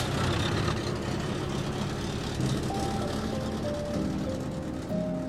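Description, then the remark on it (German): A car drives off, its engine a steady rumble with a faint whining tone running over it, continuous throughout with no voices. “Hätte mein Vater erfahren, dass ich in diesen Wagen gestiegen war, hätte er mich auf der Stelle tot geprügelt.”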